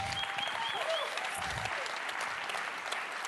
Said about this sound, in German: Ein Applaus